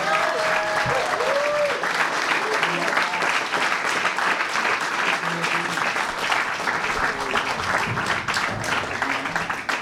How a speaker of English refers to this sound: How about a big round of applause for my brother, Mr. Herb Dean?